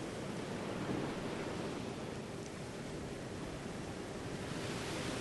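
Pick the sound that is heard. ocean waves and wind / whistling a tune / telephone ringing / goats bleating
ocean waves and wind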